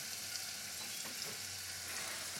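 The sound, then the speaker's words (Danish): Butter sizzling in a pan as it starts to burn and turn very brown, a steady crackling hiss that stays even throughout, with a faint low hum underneath and no voices. “Men øh, jeg vil stoppe det for uh, smør begynder at brænde.”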